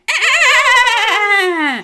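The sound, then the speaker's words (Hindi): A person vocally imitates a horse's neigh in one loud, wavering, quivering cry that starts high and slowly slides downward over about two seconds, with no other sound. “बूबू बिल्ली तो एक तरफ बूबू बिल्ली एक तरफ घोड़ा और घोड़ा हिनहिनाता है”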